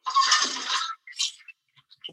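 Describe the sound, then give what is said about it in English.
A toilet-flushing sound effect: a sudden rushing, hissing whoosh of water lasts about a second, followed by a few shorter splashy bursts and faint clicks, with no voices. “Is that a toilet flushing?”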